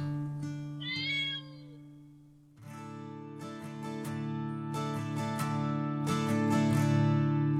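A single high, wavering cat meow rises and falls early on over a steady musical drone, followed by louder rhythmic chords of music with no voices.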